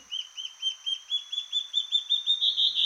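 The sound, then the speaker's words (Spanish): Birds calling along the pedestrian paths of a village in a quick, steady run of about a dozen high, arching chirps, each note evenly spaced and growing slightly louder toward the end, with no voices. “Todo el día estuvimos registrando aves nuevas por los caminos peatonales del pueblo”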